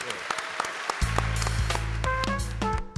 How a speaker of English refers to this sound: We also give a round of applause to Mark for his participation this evening.